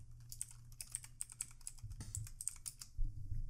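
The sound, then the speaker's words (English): Rapid, irregular typing on a computer keyboard, a steady stream of sharp clicky keystrokes, with a low background hum underneath and no one talking. “Again, sorry if you guys hear the typing.”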